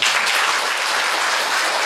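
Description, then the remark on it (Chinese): An audience at Fudan applauds for the university president, a dense, even wash of many hands clapping at once with no pauses, loud and sustained throughout the short stretch, with no voices heard over it. “我们给校长点掌声，谢谢。”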